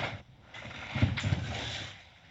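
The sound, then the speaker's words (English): Soft shuffling and rustling as someone readjusts their position, a low, continuous scuffing texture with a few slightly louder bumps in the middle, with no voices. “No, there's like shuffling and rustling.”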